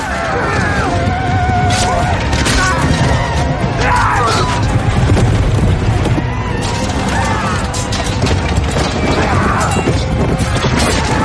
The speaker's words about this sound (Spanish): La puerta principal de la muralla está destruida. La caballería Dozraki entra acabando con los soldados que encuentra a su paso.